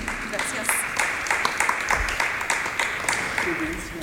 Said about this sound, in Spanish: ¿Qué les pareció esta historia? Un aplauso aquí